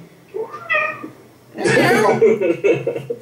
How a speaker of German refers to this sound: Katze.